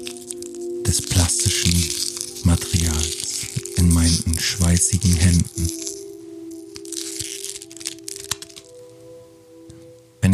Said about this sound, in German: Stellt euch vor, wie ihr mit eurem Verstand diese Verpackung zerknüllt. Ganz klein. Macht eine Faust in eurem Kopf und hört das Knirschen und sich wehren